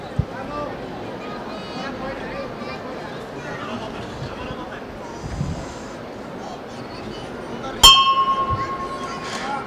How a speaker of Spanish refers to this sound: Suena la campana, va a levantar de nuevo el Santísimo Cristo de la Clemencia.